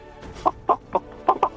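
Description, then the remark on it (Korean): A person imitates a chicken with five short, clucking bursts in an uneven rhythm, fairly loud against a quiet background, performed as a vocal impression in an impressions contest. “음, 어떤 거 하시겠습니까? 뭐닭 울음소리 뭐.”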